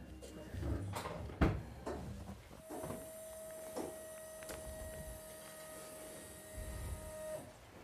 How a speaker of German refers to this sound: Okay, der Smart macht lustige Geräusche, aber wir versuchen hier gerade in der Garage einzuparken.